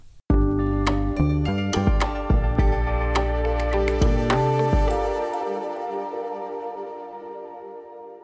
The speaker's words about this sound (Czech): Pustíme si ukázku …, kterou můžete najít na jeho Soundcloudovém profilu.